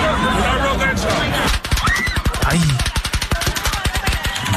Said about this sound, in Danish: Og hvad er det der for en video? Ja, det er der, hvor de bliver skudt.